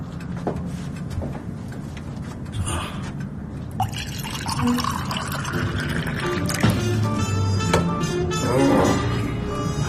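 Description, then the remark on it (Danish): Red wine glugs and splashes steadily into a glass for several seconds, the trickling tone rising in pitch as the glass fills, with occasional drips at moderate loudness. “Skal lige have lidt drikke her.”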